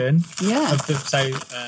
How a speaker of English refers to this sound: that's the sound of a bourbon, a bourbon, biscuit being taken out of the packet. Uh, so I'm going to have that in a minute. Vegan. Well, they are vegan, famously vegan.